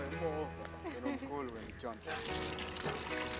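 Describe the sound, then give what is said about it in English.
Clean drinking water pours out in a steady, splashing stream, with voices talking over it and the flow sounding louder and hissier in the second half. “It's amazing feeling to just um, see water coming out like this and seeing the joy of the people around.”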